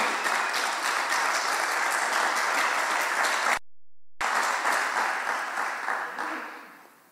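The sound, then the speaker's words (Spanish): An audience applauds in a steady, dense wash of clapping that holds loud, breaks off in a brief silent gap, then resumes and gradually fades out toward the end. “Me gusta que aprendas por eso, que aplaudas por eso, porque allí no vas a estar vos.”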